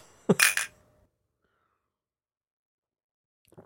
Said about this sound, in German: Ich komme jetzt mal zu dir rüber zum Anstoßen und das Geräusch haben wir dann bei dir auf deiner, auf ja, deiner Spur.